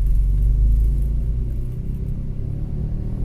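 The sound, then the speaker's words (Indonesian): A car turning right in road traffic, with a steady, loud low-pitched engine and tyre rumble that eases off slightly partway through. No one speaks. “itu motor mau mobil mau mana sih anjir mobil belok kanan mau belok ke kanan dia”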